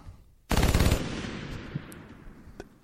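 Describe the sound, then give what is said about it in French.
A loud burst of fire from a light machine gun (fusil mitrailleur) shooting down a horse, a rapid half-second string of shots that cuts off abruptly and leaves a long echoing rumble fading away, with no voices. “Le fût du canon de son fusil mitrailleur fumait encore des projectiles qui avaient frappé de plein fouet et terrassé le superbe équidé.”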